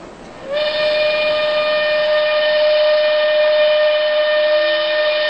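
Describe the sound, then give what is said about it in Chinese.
A train leaving Nanjing sounds one long, steady, high whistle that rises in quickly and holds unbroken to the end, riding over a constant rumbling roar of the moving train. No one speaks. “林曼玛丽和苏娟坐着火车，目送着那一群逃难的百姓。”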